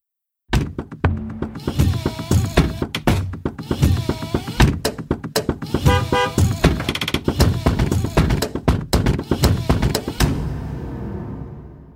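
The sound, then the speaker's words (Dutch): Car sounds arranged into music in a 2011 Chevrolet commercial: a fast, steady rhythm of loud thumps and slams with bursts of honking, horn-like tones woven between them, full, ending in a fading ring. “De auto als orkest. Dat is een mooi beeld, toch? Dat vond ook Chevrolet, die het in 2011 gebruikte in een commercial”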